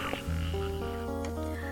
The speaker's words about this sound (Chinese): 我们静心聆听林中水潭传来的阵阵蛙鸣